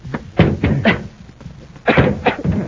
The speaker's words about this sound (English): we don't stand a chance of breaking down this door.